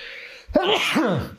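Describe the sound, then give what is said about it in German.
A single abrupt sneeze bursts out after a quiet moment, with a sharp breathy onset followed by a voiced, wavering exhale that trails off. “Gesundheit. Dankeschön.”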